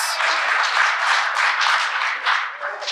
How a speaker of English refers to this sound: So we're going full on applause from here on out.